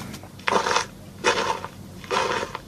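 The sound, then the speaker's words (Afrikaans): Three crunchy footsteps, a sound effect being added to a picture, at a slow, even pace, each a gritty rustle like shoes on gravel or dry leaves, with a quiet pause between steps and no talking. “Kom ons kyk hoe lekker voetstappe.”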